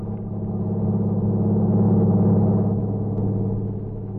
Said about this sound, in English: Then he saw the lights of a truck approaching. It passed him at high speed.